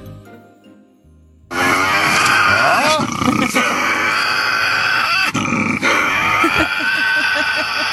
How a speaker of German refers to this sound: Um Gottes Willen! eine Teufelsaustreibung, oder? Was ist denn das bitte? Es ist der tasmanische Teufel.